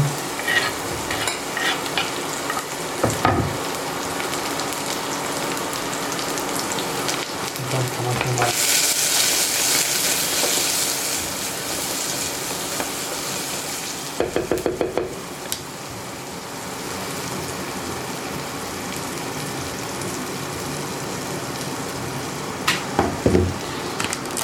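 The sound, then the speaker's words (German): Onions and chopped spring onions sizzle steadily in hot olive oil in a pot, a continuous crackling hiss with occasional stirring scrapes and clatters, and a louder burst of sizzle as the spring onions are added midway. “Zwiebeln schon mal ins Öl und verkleinere einstweilen die Lauchzwiebeln. Auch die Lauchzwiebeln kommen hinein.”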